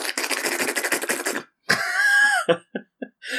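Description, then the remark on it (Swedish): A person imitates an anteater going around sniffing: a quick run of about a dozen loud, breathy sniffs, followed by a short strained vocal noise and a few clipped snorts. “Skulle bli lite, människan skulle bli lite som en myrslok så går runt och sniffar och så bara”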